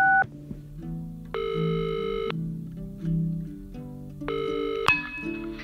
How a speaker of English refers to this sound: Let's call her now on the funny phone. Beep, beep, beep, beep, beep.